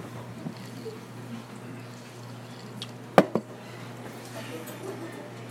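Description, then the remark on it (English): A quiet sip of water: a soft gulp with a couple of sharp little clicks midway, over a steady low hum, with no talking. “And so that's what I want to talk for a moment about as I take a sip of water.”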